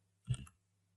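A single soft computer mouse click, made while selecting mathematics in a subject search, sounds once over a faint steady electrical hum, with silence before and after.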